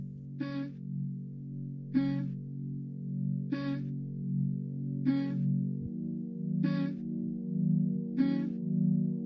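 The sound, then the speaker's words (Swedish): A new song plays on its own from a Spotify Release Radar playlist, a warm sustained low synth bed under a slow, steady percussive hit landing roughly every second and a half, at moderate volume with no voices. “Här är ny musik som vi tror att du gillar. Mm. Så kommer du på en låt. Ja, spela den.”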